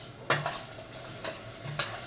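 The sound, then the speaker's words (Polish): A spoon stirs button mushrooms braising in a pan with small amounts of water, with four short scraping strokes at irregular intervals over a steady, soft background sizzle. No one speaks. “Nawet jeśli nie jesteśmy się w stanie zorientować po samym dźwięku, czy e, potrzebują już pieczarki wody, warto wziąć po prostu łyżkę, przemieszać.”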